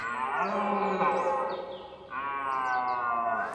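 A red deer stag roars during the rut in two long, loud bellows, one right after the other, deep and raspy with a drawn-out, groaning tone, in a forest with no voices.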